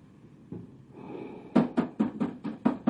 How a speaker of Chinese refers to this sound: 有人敲门。